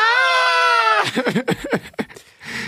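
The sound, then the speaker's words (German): A voice imitates the excited, high-pitched scream girls give when a certain song plays in a discotheque, held steadily for about a second, then breaks into quick breathy vocal sounds and chatter-like bursts. “Wirklich, die Mädels müssen immer bei dem Song kreischen”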